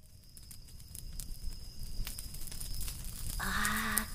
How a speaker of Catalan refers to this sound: Sí, exactament, és una ximeneia. Jo crec que és el millor moment per poder encendre un bon foc.